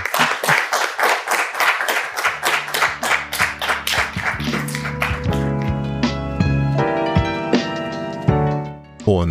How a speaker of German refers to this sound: Das ist dein Applaus. Bitteschön.